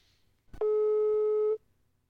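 telephone ringing

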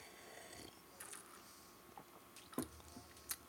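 sipping a drink

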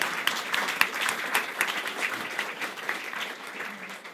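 applause

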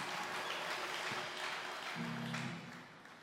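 audience applause

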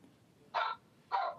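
dog barking

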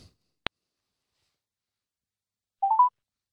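telephone call being dialed

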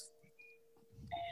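doorbell ringing

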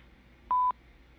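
telephone keypad dialing tones

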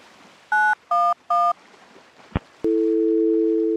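phone keypad dialing tones

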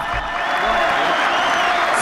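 applause

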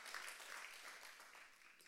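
audience clapping

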